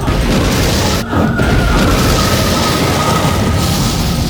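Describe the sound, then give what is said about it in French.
A loud, continuous roaring boom fills the whole stretch, a dense rumbling whoosh that briefly cuts out near the start before surging back, with a faint steady whine running underneath: a black hole created by a spell, swallowing everything in its path. “Dark Hall Oh, le sort de Yota a créé un trou noir qui ça à tout avalé sur son passage.”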